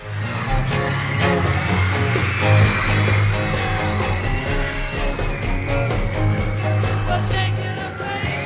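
A loud, steady wall of high-pitched screaming from fans fills the background throughout, running under a driving live rock band playing continuously.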